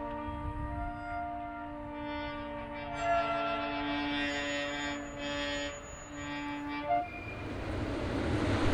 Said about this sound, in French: les trains passaient ici au ralenti. En fait, en fait, ils passent beaucoup trop vite.